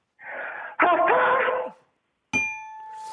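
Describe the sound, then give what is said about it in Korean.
A voice imitates a steam locomotive: a breathy hiss swells into a loud, wailing whistle-like cry lasting about a second. After a short silence, a bright bell ding rings out and lingers. “예, 증기기관차 보겠습니다. 들어보세요.”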